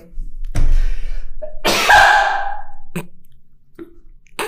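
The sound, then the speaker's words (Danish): A sharp intake of breath, then one loud, high-pitched voiced sneeze that trails off, followed by a few faint sniffs and small clicks. “Jeg skal lige nys.”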